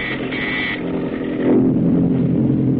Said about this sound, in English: Now the PT's motors are muffled as it tracks the enemy.